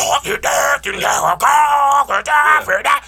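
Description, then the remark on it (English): A person's voice imitates death metal screaming, letting out a string of loud, raspy, guttural bellows in quick bursts, with no clear words. “death metal? I, they be screaming like crazy.”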